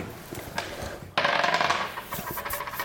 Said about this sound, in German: Und ich würde sagen, wir würfeln los.